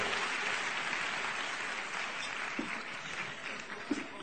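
Steady audience applause at a convention at night fills the space, a dense wash of many hands clapping at once, sustained and fairly loud with a few sharper claps standing out near the end.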